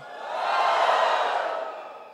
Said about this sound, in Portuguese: Diga, porque eu não sou bobo. Quem não é bobo, dá um grito aí, ó.